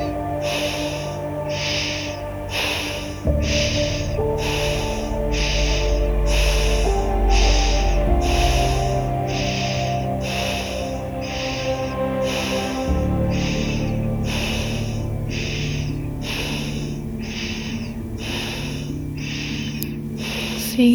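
Forceful breaths repeat in a steady, rapid rhythm, roughly one per second and without a break, layered over a sustained musical drone, with no talking.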